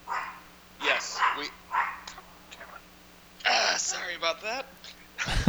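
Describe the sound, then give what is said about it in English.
A small dog, Coco, barks in several short, sharp bursts, some in quick pairs, moderately loud, with brief pauses between the outbursts. “Ah, that was little Coco. You know, she she loves these uh, dogs that the NFL loves to put on television.”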